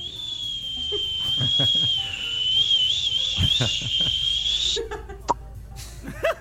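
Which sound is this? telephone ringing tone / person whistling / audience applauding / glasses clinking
person whistling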